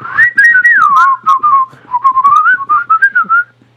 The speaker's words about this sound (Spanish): Siempre me la pasaba chiflando eso, güey.